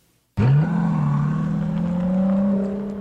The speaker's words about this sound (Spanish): Y al levantar el capó, un V12 turbo de 600 caballos de fuerza, uno podría conseguir esta potencia con tan solo un V8, pero el V12 le da una tersura efervescente.